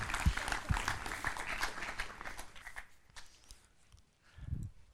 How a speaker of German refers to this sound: Fetten Applaus.